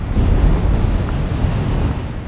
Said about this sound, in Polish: słyszycie ten wiatr bowiem wieje wiatr historii i chmura głupoty oraz kołtuństwa mm, wzniesie nas wszystkich prosto do piekła.